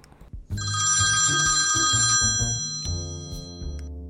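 A telephone rings loudly for about three seconds, a bright, shimmering bell tone layered over a steady pulsing pattern, then cuts off. No one speaks.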